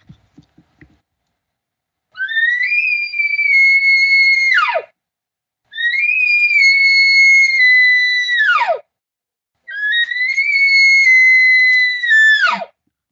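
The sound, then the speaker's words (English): A cow elk calls three times, each a long, high, whining mew of about two to three seconds that drops sharply at the end, with short pauses between and no talking. “She's very persistent when she wants some a, reaction from other elk”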